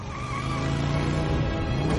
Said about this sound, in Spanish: Todos salen volando. Hagrid acelera la moto.